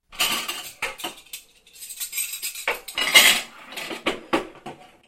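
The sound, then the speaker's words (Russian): Clean dishes and cutlery clatter and clink repeatedly as they are taken out of a dishwasher and set down in their places, a busy series of knocks and rattles with brief pauses, no voices. “Он доставал мытую посуду из посудомойки и складывал ее на свои места.”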